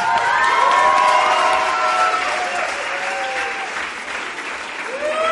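A crowd breaks into sustained, dense applause with scattered cheers and high-pitched whoops, loud and steady throughout, with excited voices rising above the clapping.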